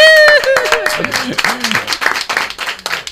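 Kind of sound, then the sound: crowd, audience applause and clapping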